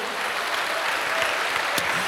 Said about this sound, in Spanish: Dale un aplauso ahora sí a Cristo, hermano. Gloria al nombre de Jesús.